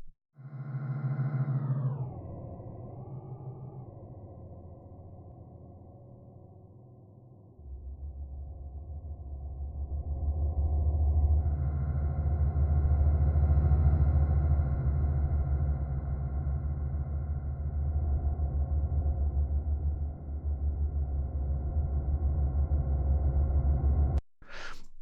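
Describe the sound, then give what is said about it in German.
A heavily processed tone, pitch- and formant-shifted with the Soundtoys Little Alterboy plugin, slides downward, then settles into a thick, droning rumble with a washy reverberant tail that swells and holds for over twenty seconds before cutting off abruptly. “Und jetzt packen wir davor nochmal den äh, Little Alterboy oder ja, Little Alterboy von Sound Toys, dass wir jetzt auch nochmal vielleicht mit Pitch oder Formant oder beiden rumspielen.”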